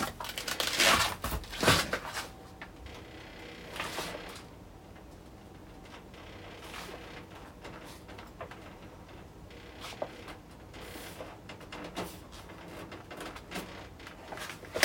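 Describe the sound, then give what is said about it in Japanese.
The plastic casing of an air conditioner rattles and clicks irregularly over a steady mechanical hum. The sound is moderately loud, with louder bursts near the start, and no one speaks. “どっかこうなんだろうプラスチックなのであのそのプラスチックが鳴ってるんですよね。”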